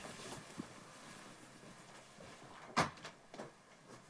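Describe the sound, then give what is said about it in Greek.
A door bangs shut with one sharp, fairly loud knock, followed by a couple of softer clicks and rattles against a faint, steady background hum. No one speaks. “Μην κλείσει πόρτα”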